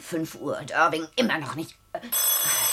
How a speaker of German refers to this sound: Telefon.